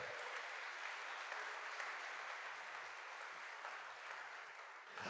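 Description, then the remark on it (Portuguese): An audience applauds, a dense, steady wash of many hands clapping that holds at an even loudness for about five seconds, with no voices rising above it. “Pode aplaudir se você quiser.”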